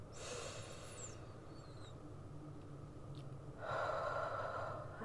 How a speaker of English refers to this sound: Um, so, before we get into anything, let us do our deep breathing. Inhale for five seconds.